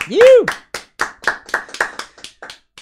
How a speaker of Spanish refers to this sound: Ahí el aplauso.